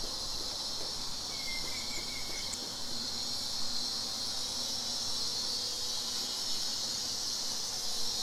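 Cicadas buzz under trees in a garden in 34°C summer heat, a steady, high-pitched drone that fills the whole clip without a break, with a brief faint bird chirp near the start and no talking.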